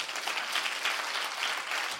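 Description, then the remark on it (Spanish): An audience applauds together, a dense, steady wash of many hands clapping at once with no pauses, bright and crackling, holding an even loudness throughout without any voices. “Aplaudan bien entonces.”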